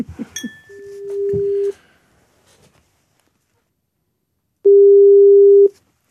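A steady electronic ringback tone sounds twice, each burst about a second long with a long silent gap between, after some brief clicks and handling noise at the start.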